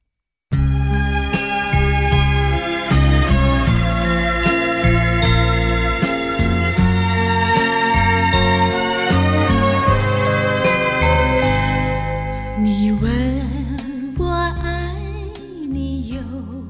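A gentle Chinese pop love ballad plays at a steady tempo, with bright chiming keyboard-like tones over a warm bass. Near the end a smooth, wavering melodic line rises above the accompaniment.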